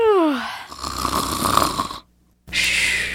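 Cartoonish snoring of the little witch Dorothee napping on stair number 44: a falling whistle gives way to a long, loud, raspy snore, then a brief silence before another rough, hissing snore starts.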